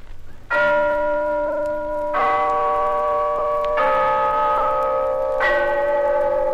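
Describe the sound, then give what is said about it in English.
The clock bell of Glen Falls Town Hall chimes four times, each loud, ringing strike swelling with rich harmonic overtones and overlapping the lingering hum of the previous one, in a steady, slow rhythm with no talking. “Yes, there's the clock in Glen Falls Town Hall, telling us it's time for Rinso's story of Big Sister, brought to you by the new soapy rich Rinso.”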